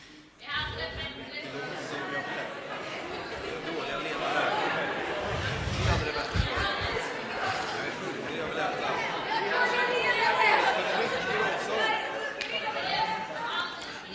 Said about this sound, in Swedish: ska ni få höra hur mycket jobbigare det blir om alla gnäller samtidigt